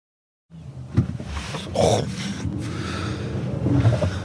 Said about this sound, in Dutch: Ja, dat is even optrekken in de Volvo XC40 Recharge P8 het ah, eh, gaat eh, best eh, voortreffelijk. Lekker snel.